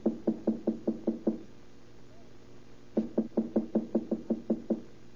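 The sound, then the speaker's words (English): Two quick bursts of firm knocking on the door of apartment number three, about seven evenly spaced raps, a pause, then a second longer series of about nine, clear with no voices. “Here we are now. Number three. With our, our knock first.”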